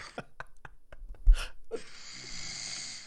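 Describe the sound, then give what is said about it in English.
A woman's husband snores: a few short raspy breaths build into one loud, rattling snore, followed by a long noisy exhale. No one speaks. “Is that snoring? What? This is my husband.”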